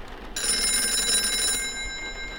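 telephone ringing

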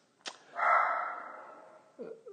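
dog barking

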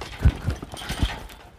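horse hooves clip-clopping

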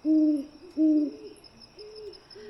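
owl hooting

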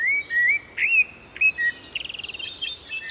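birds singing

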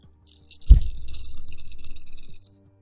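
dice rattling

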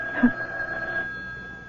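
telephone ringing

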